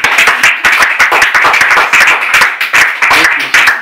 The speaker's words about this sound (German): Deswegen wirklich nochmal ein extra Applaus für dich.